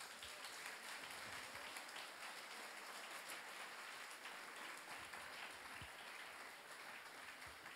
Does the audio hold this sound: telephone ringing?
no